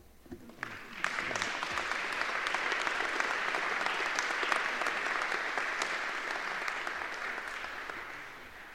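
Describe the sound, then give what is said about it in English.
A large audience at a graduation ceremony claps steadily, a dense roar of many hands that swells after the first second, holds strong for several seconds, then begins to taper off slightly at the end. No one speaks. “Please withhold applause until the end of each degree category.”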